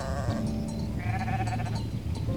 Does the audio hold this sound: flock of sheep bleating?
yes